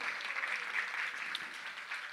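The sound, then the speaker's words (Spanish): An audience applauds the Lord together, a steady dense wash of many hands clapping at once, sustained and even in loudness throughout with no voices standing out. “¿Cuántos dan un aplauso al Señor por eso?”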